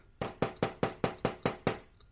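Eight quick, evenly spaced knocks on a door on a very cold morning shortly after dawn, in a steady rapid rhythm, each sharp and solid with a short ring, clear with no voices.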